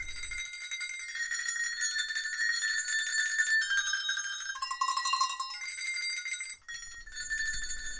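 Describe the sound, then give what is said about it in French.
Cow bells played musically with nuance and sensitivity, their bright metallic clangs shifting pitch through a sustained, ringing melodic pattern, fairly loud with no voices. “ça me plaît d'essayer de de jouer avec sensibilité, même des, clarines de vache qui, on pourrait dire, ça fait du bruit, tout ça, mais moi j'essaie d'y mettre des nuances et d'y apporter un peu de sensibilité.”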